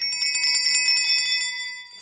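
Small church altar bells, the kind rung by altar servers during Mass, jingle together in a bright, shimmering cluster, rung rapidly and continuously, their high metallic tones ringing on and fading slightly at the end. No voices.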